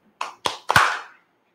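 A few sharp, close claps in quick succession, the last ones merging into a brief burst that fades within about a second, with no voices.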